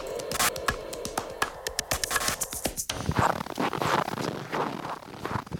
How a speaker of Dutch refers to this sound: Wat je hier hoort is het eh, geluid van mijn voeten in de sneeuw. Ijskoud is het nu. Staalblauwe lucht.